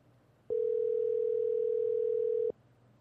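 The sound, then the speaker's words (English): A single steady electronic phone ringing tone sounds for about two seconds, loud, then cuts off, leaving only a faint low hum. No one speaks. “They let these phones ring, ring.”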